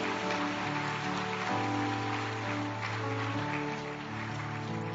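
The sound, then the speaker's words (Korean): A church audience applauds in thanks for two people with dense, steady clapping lasting about five seconds at an even loudness, while sustained low keyboard-like tones hum beneath the applause. No one speaks. “자, 우리 두분 어, 감사의 마음으로 우리 박수 한번 다시 한번.”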